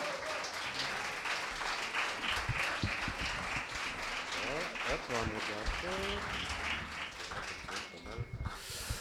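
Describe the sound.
A crowd applauds steadily and loudly for about nine seconds, a dense patter of many hands, with voices calling and cheering over it midway before the clapping thins at the end.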